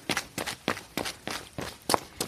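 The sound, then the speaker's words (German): Foley footsteps of a person walking, made as a film sound effect, at a steady, even pace, about eight crisp heel-and-toe impacts, clear against a quiet background with no talking. “Zum Beispiel, wenn eine Kaffeetasse klirrt, wenn sich einer im Bett wälzt und wenn einer läuft.”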